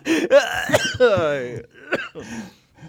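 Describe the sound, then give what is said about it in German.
A loud coughing fit: several harsh, raspy coughs in quick succession, mixed with gravelly throat clearing, then a couple of weaker hacks trailing off at the end. “oh, mir zerfetzt ähm. die Junge, äh, die Lunge, Junge.”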